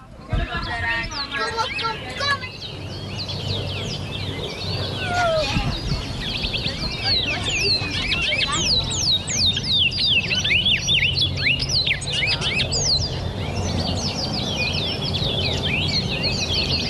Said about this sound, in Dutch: in de Belmen, dat kent iedereen wel, dat zijn die vogeltjes. Kent u ze wel? Die mannen die met die kooitjes lopen met die vogeltjes.